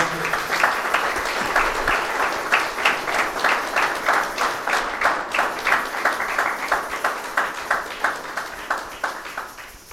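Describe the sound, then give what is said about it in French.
An audience applauds steadily to welcome the reverends, among them a pastor of the International Church of Brussels, clapping in a rhythmic, unison beat of roughly two to three claps per second, fairly loud, with no talking over it. “Et nous voulons les recevoir euh, sous vos acclamations, les révérends.”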